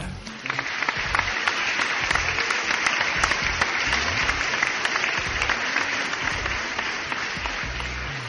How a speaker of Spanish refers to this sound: Pero démosle un fuerte aplauso al ganador.